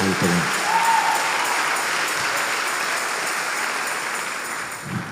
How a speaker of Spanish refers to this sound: ¿A dónde está el aplauso de este pueblo? ¿A dónde está el aplauso?